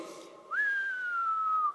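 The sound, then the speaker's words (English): A voice imitates the whistle of an incoming artillery shell: one long, clear whistled tone that rises quickly, then slowly glides downward for over a second before cutting off. “And, and it was one of those booms, and then you could hear the whistling noise.”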